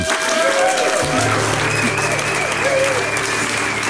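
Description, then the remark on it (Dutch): Steady, dense applause from a sizeable studio audience at Studio de Smet in Amsterdam, at a recording of the programme Argos, fills the space, loud and continuous throughout, with a low hum and faint background tones underneath. “We zitten met publiek. U hoorde het in Studio de Smet in Amsterdam.”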